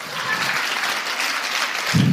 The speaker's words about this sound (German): Das ist jetzt normalerweise der Zeitpunkt, wo ihr klatscht.